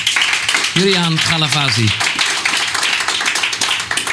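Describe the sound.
Audience applause: a dense, steady wash of many hands clapping that fills the whole clip, while a man's voice speaks briefly over it near the start.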